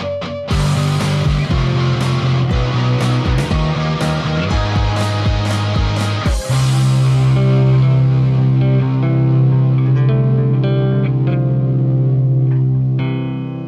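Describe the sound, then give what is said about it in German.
A loud, heavily processed outro jingle for a category segment, with distorted, chorused tones: punchy rhythmic hits for the first several seconds, then long sustained chords ringing out with echo. No one talks over it. “kommt das geile Outro, dieses genau, Wahnsinns-Outro genau der, der Kategorie.”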